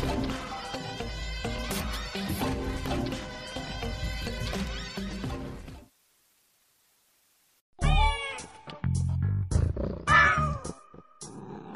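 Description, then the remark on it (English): A cat meows several times, loud, its rising, wavering cries following a stretch of busy music and a short silence, in a Transformation Talk Radio promo. “Think that Dr. Pat shows the cat's meow?”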